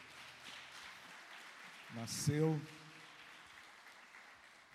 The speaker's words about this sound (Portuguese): Você pode aplaudir o Senhor Jesus.